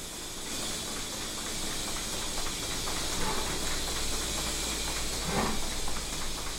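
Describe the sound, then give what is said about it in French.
A milking machine runs with a steady, loud hiss of suction, overlaid by a fast, regular ticking pulse as the vacuum alternates, continuing evenly throughout. “Et puis ensuite, bah, c'est un système euh, de succion-aspiration en alternance.”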